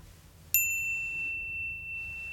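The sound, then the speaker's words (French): A single bright notification ding strikes cleanly, then rings on with a clear, high sustained tone that slowly fades over about two seconds. No one speaks. “Activez la petite cloche et soutenez-moi avec un petit pouce.”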